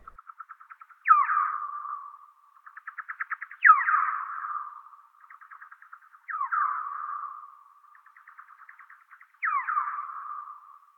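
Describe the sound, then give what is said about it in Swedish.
Slowed-down parti-coloured bat echolocation pulses, heard as rapid bursts of ticking, alternate with four louder, sweeping social calls that drop in pitch and trail off, all clear with no talking. “Ni kan också jämföra ekopejlingens pulserande toner jämfört med ett socialt läte från gråskimlig fladdermus.”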